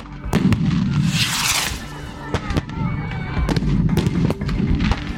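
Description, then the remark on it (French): A volley of protesters' firework mortar shots and police stun grenades exploding on the ground during a city demonstration: loud, sharp bangs at irregular intervals, some booming, over a rumbling background of crowd noise. “C'est un mélange des tirs de mortier des manifestants et des répliques des forces de l'ordre avec des euh, grenades de désencerclement qui explosent au sol quand on est en manifestation en ville,”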